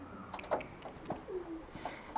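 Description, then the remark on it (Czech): Pigeons coo softly in a series of low, throaty calls, with a brief rising warble midway, over a quiet background with faint flutters and scuffs. “Za ta léta jsem nakrmil tisíce holubů, ale jeden z nich, nádherný pták, čistě bílý s šedými špičkami křídel, byl jiný než ostatní.”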